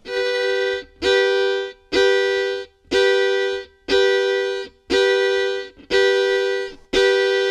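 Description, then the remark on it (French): A violin mimics the two-tone siren of a car alarm or ambulance, sounding eight loud, sustained, evenly spaced strokes that alternate in a steady wailing rhythm, with no talking. “Une alarme de voiture ou une ambulance.”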